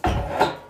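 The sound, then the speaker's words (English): A short wooden scraping and rubbing noise of a chair being moved across the floor, fairly loud, lasting under a second with no talking. “My apologies for the noise right there. That's just me trying to move a chair.”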